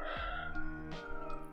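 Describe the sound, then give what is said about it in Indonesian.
A rooster crows once, a drawn-out, strained call that bends in pitch partway through, fairly faint and heard on its own with no voices. “hmm, ada ayam lagi”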